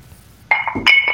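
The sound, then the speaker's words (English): Two glasses clink together in quick succession during a toast, bright ringing taps, with a faint low room hum underneath and no talking. “Cheers. Cheers. Clink.”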